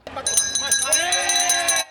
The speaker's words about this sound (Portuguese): O som do sino é de alívio toca quem chega a um acordo.